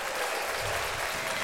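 A steady wash of audience applause, dense and crackly, holding at an even, moderate level for the whole moment with no talking over it.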